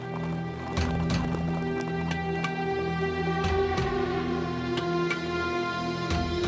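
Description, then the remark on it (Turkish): Horses with riders gallop steadily through a forest, their hoofbeats landing in a quick, uneven rhythm over a constant low hum and background texture, continuous throughout. “Ardından ağaçların ardında dört nala giden atlıları fark etti.”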